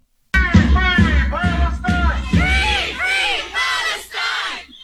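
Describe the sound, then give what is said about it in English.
A loud crowd of pro-Palestinian protesters shouts and screams at children waiting in line to see Santa Claus at a mall in Canada. Voices rise in strained, rhythmic bursts, repeatedly chanting "Jesus was Palestinian," with barely a pause between the yells. “And here come the Palestinian terrorist supporters shouting, screaming, and spitting on little children.”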